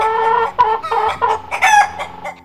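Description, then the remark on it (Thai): A rooster up on a high spot crows loudly, a strained, harmonic call broken into several rising bursts over about two seconds, with no other sounds around it. “ที่สูงเห็นดังนั้น จึงโก่งคอร้องเสียงหลง”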